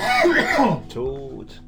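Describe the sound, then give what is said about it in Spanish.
A person coughs, a rough, throaty fit with a couple of harsh bursts and strained voiced sounds, like clearing a tickle from the throat. “Perdón, voy a toser.”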